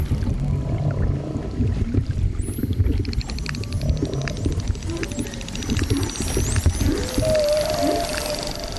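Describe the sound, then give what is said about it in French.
Underwater hydrophone recording, made from a zodiac, of dolphins hunting together: several high, sweeping whistles overlap with rapid buzzing click trains, all over a constant low rumble of water noise. “c'est une véritable cacophonie. Donc euh, il faut qu'ils se coordonnent pour chasser.”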